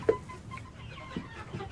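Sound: chickens clucking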